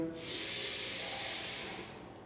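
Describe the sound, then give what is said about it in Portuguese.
A single long, deep breath drawn in through the nose during a guided breathing exercise, a steady airy hiss lasting about two seconds, fairly quiet, with no talking. “você inspira e respira mais forte.”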